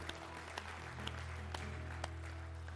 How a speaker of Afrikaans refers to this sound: Kom ons gee hom 'n hande klap.